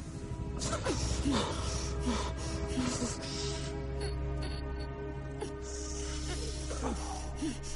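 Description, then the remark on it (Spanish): A woman gasps and snorts in short, uneven bursts of breath as someone repeatedly pinches her nose shut with their fingers and releases it, set against a steady low hum. “Vincent tapona y destapona la nariz a la mujer con los dedos.”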